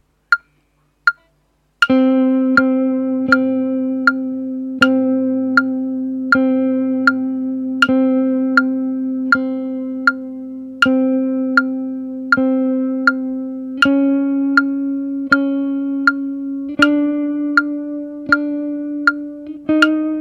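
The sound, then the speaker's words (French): Long sustained guitar notes with left-hand vibrato played in rhythm with a metronome, ringing over steady metronome clicks about every three-quarters of a second. The held pitch steps up slightly twice, with no talking. “de bosser vraiment sur votre vibrato”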